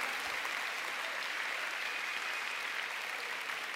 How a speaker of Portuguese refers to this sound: Se é para aplaudir, aplauda o Senhor Jesus nessa noite. Com toda a tua força. Pode aplaudir mais forte o Senhor.